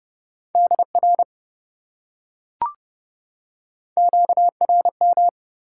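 Fast Morse code beeps sent at 30 words per minute in a steady mid-pitched tone, two clusters of quick dots and dashes separated by a pause with a single soft click, clear with no voices.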